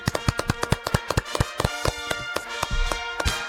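crowd, small round of applause

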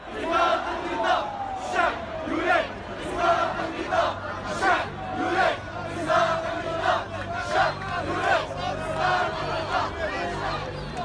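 crowd, protest crowd chanting slogans

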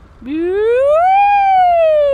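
vehicle, police car siren

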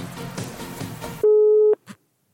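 signal or alarm, telephone call ringing tone

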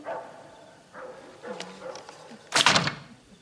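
animal, dog barking

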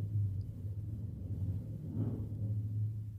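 vehicle, motorcycle passing outside

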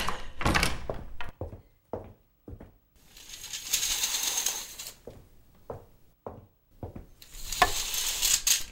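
household object, door being locked

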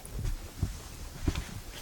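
animal, dog

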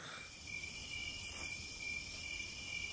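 insect, crickets chirping

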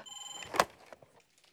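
household object, telephone ringing

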